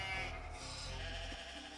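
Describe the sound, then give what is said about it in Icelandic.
A sheep bleats loudly and close by in one sustained, wavering call lasting nearly two seconds, with no talking over it. “Sem dæmi má nefna læra, kappátt, eh, frumlegasta sögðadressið, flottustu fjárhúfuna, sparðatíning, spörð eru gamalt íslenskt orði við kindakúk og síðast en ekki síst, fegurðar samkeppni hrúta.”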